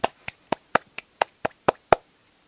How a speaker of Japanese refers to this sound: ということでこの拍手は何なのえ一応なんかなんか雰囲気的にさ拍手したいじゃん